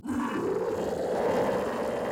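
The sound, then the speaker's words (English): A deep, rumbling roar from a cloned three-million-year-old prehistoric cat blends into a sustained growl, loud, holding steady for about two seconds with no speech. “It's our first three million year old cloned kitty cat.”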